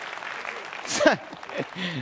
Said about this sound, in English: I'm going to be honest with you, I just love the pastor at this church. I mean, it just really, yeah, let's, let's clap for him. Praise God, yeah.